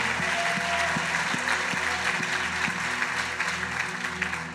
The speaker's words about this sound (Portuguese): E vamos dar um aplauso ao Senhor Jesus pela vida dele.